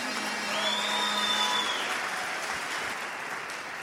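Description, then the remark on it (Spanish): Sustained audience applause for the speaker's sponsorship line, a dense steady wash of clapping that stays loud throughout, with a faint high whistle-like tone briefly rising above it early on. “Entonces, un aplauso para mi línea de auspicio.”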